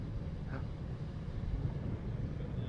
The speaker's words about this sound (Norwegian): Hør bølgene nå, da, fra Taufergen.